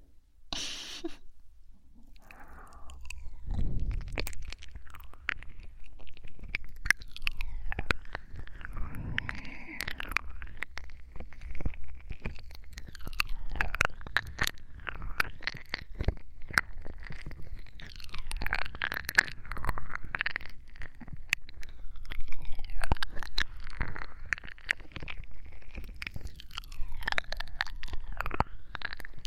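Wet ear-licking mouth sounds from a girlfriend roleplay run continuously for the whole stretch: soft slurps, tongue clicks and smacking squelches in an uneven, unhurried rhythm, with no talking.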